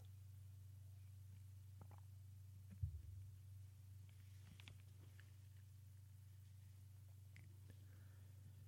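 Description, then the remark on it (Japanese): Someone quietly sips coffee, with a soft clunk of a cup early on and a few faint slurps and mouth clicks over a steady low electrical hum; nobody speaks. “コーヒーを飲みます。”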